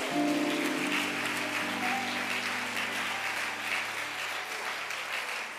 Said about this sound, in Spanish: Alguien déle un aplauso a Jesús por la palabra.